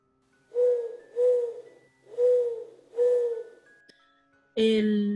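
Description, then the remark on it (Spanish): Four steady, low owl hoots repeat at an even pace, clear, followed by a louder, harsher hoot at the end with no one speaking. “Sí, ya se nos está arrancando la lechuza de nuevo.”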